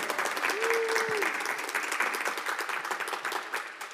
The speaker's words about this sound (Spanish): Dale bien fuerte ese aplauso al Señor.